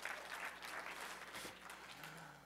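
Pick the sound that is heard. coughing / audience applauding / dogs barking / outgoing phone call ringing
audience applauding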